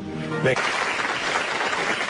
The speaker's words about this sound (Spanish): Le damos un aplauso y le dejamos que se vaya.